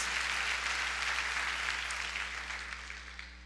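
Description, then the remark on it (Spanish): A church audience applauds steadily for God as King of Kings and Lord of Lords, a dense wash of many hands clapping at once, holding strong before gradually tapering off toward the end, with a low steady hum underneath. “Alguien dele un aplauso al Rey de Reyes y Señor de Señores entonces.”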